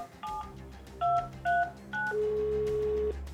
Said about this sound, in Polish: Jeden mężczyzna podał Amandzie swoją komórkę. Kobieta natychmiast wybrała numer 911.